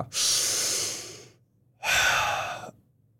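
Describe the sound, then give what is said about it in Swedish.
One deep, forceful Wim Hof style breath: a long rushing inhale, a short pause, then a strong, slightly shorter exhale, demonstrated alone with no talking. “Eh, så vi gjorde inte, Wim Hof är ju den här.”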